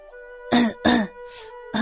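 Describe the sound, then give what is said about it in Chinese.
A man clears his throat in a series of about four short, gruff rasping bursts, fairly loud, with a faint steady tone humming underneath and no speech. “满意的向站在一旁的甜心点了点头，咳嗽了一声。”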